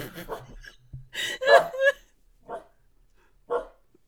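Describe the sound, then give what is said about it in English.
A dog barks several times, a cluster of sharp yelps followed by two spaced single barks, with a brief murmur of a voice at the start. “Dog, shut the fuck up.”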